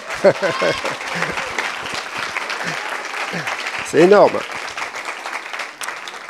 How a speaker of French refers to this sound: Alors là, il y a aussi des choses dans l'avenir, mais il y a quand même énormément de choses dans la réalité, donc on peut applaudir notre Église. Applaudissez-vous